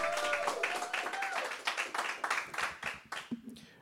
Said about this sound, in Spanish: Si usted, si ese aplauso fue para mí, estuvo bien. Si fue para el Señor, necesita hacerlo mejor. Come on, give the Lord a strong hand clap.